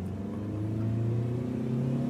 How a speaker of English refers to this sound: We hopped in the car and we sped off as fast as possible.